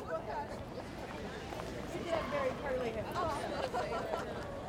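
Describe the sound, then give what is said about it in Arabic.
Steady indoor crowd murmur in a museum, on a floor devoted to the nation we build together: many overlapping visitors' voices chatter with no single speaker standing out, a continuous low hubbub. “So we're standing here on a floor of the museum that's devoted to the nation we build together.”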